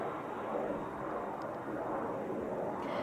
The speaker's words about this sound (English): let this plane go by.